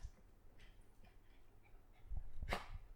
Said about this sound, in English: Sorry, the dogs are all. Yeah. I've been overrun by dogs, which is dream world for me.